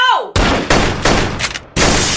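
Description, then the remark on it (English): A brief falling vocal cry gives way to a rapid volley of loud gunshots, roughly five or six sharp cracks fired in quick succession, each leaving a noisy ring before the next. “Sorry, I shot first.”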